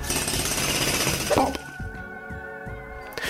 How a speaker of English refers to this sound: The sound of what sounded like a drill got closer and closer and closer until